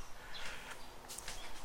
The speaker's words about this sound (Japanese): 今日は鳥が鳴いているね